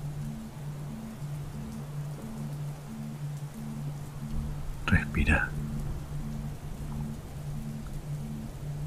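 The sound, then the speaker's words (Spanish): Steady, soft rain of an approaching summer storm hisses throughout, layered over a low pulsing drone, with a quiet voice briefly speaking midway. “puedes sentir una leve brisa de una tormenta de verano que se aproxima por alguna razón empezás a disfrutar de ese mágico sonido.”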